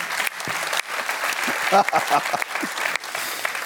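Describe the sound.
A burst of applause from a crowd for a speaker who speaks every week, steady dense clapping throughout, with a few voices briefly rising over it in the middle.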